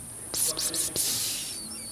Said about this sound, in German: Was? die Grillen, ich meine, sagen uns alle. Perfekt. Hört sie die Grillen im Hintergrund?